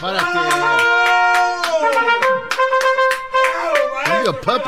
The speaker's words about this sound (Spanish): Déjele aplaudo, pero hincado esta vez. ¡Bravo, maestro!